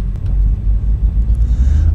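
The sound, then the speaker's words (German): A steady, loud low-frequency engine roar rumbles continuously, like the simulated engines of a 737 airliner running at full throttle for takeoff on the runway, with no voices present. “So, wir dürfen starten. Also Vollgas mit Alt Position 1. Und wir merken, unser Flugzeug startet nicht, weil die Bremse noch drin war.”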